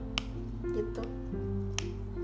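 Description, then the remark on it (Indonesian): A few sharp pops from pressing bubbles on a small silicone pop-it toy, spaced irregularly over a steady low background hum, with a brief spoken word. “aku punya dua pop it satu yang kecil ini bunyinya kayak gini”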